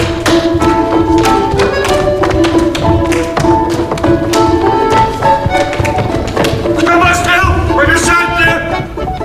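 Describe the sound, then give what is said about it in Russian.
A peasant boy dances the Kamarinskaya, then everyone joins in. Dancers stamp and tap on a stage floor in quick, uneven bursts over loud, lively folk-style music with sustained melodic tones throughout. “Он танцует Камаринскую. Все тоже начинают танцевать.”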